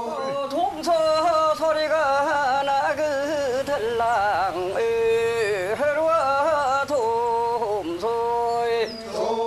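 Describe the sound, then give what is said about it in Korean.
A Korean folk work song (dongso sori) sung after transplanting rice seedlings in Tongmyeong, Yecheon County, North Gyeongsang, by a group of voices in unison, with long wavering held notes and melismatic phrases flowing continuously at a steady, fairly loud level. “경북 예천군 통명에서 모를 심고 나오면서 부르던 돔소소리입니다.”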